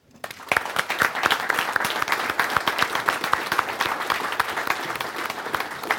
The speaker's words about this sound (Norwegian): Svein Tore Løkslid han er fylkesordfører i Telemark for Arbeiderpartiet, og vi gir dem en applaus.